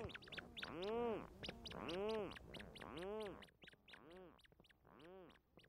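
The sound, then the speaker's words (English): Burrow-nesting seabirds, medium-sized, dark gray, duck-like birds that return from sea at night with fish for their single chick, call in the middle of a July night in a steady series of five loud, nasal, rising-and-falling cries, with faint higher chirps and clicks from other birds behind them. Recorded by Jeff Rice. “medium sized, dark gray duck like birds that spend their days at sea and then return at night with fish for their single chick”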